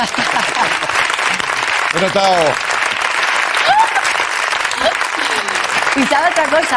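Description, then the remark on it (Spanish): Steady audience applause fills the whole stretch, a dense wash of clapping at constant loudness, with a few voices calling out briefly over it. “La gente quiere aplaudir, creo, ¿eh?”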